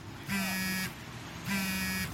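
mobile phone vibrating

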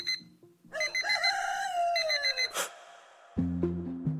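alarm clock ringing

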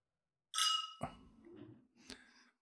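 wine glasses clinking

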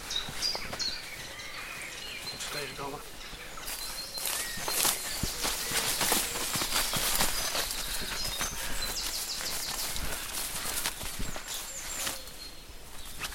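footsteps walking outdoors

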